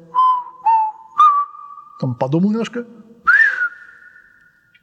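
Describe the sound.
A person whistles an imitation of a thrush's song, the thrush having learned the first three notes of a tune: three short, clear mid-pitched notes in a row, a brief stretch of speech, then one more whistled note that bends up and holds.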